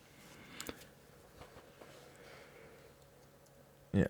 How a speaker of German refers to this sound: Ähm, es wird denn hier getippt?